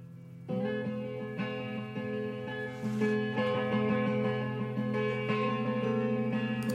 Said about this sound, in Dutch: dit is het eerste liedje. Start de klok.